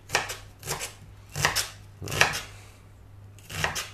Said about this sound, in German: Und dazu dann eine halbe Zwiebel klein schneiden, weiß ja. Schälen, einschneiden nicht ganz durch, zum Strunk, quer dazu und schon hast du die perfekten Würfelchen.